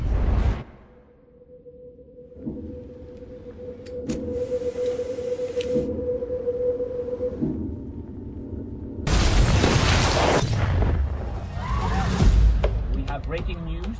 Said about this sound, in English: A large explosion has gone off in the center of the city.